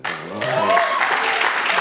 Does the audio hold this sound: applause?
yes